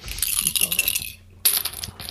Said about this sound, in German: Also, dann äh, würfel ich jetzt mal, wie viel waren es? 43? 43. 43 dürfen es sein.